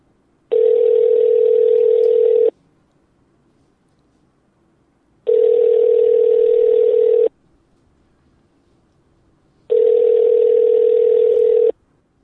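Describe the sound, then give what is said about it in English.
A telephone line tone sounds three times as a phone call is placed, each a steady two-second electronic hum separated by silent pauses of about two seconds. It is clear, with no voices. “So we should probably get her on the phone and see if she can spend a few minutes with us”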